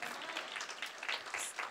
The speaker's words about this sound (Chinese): 还拍手，把荣耀归给主，好不好？Amen。